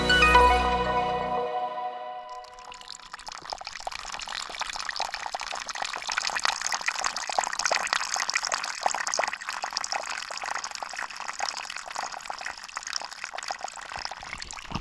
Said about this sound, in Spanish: Bueno, este chorrito de agua que escuchamos en este momento, ¿de dónde viene Marta Nosa? Este es un sitio eh, que se llama El Chorrito.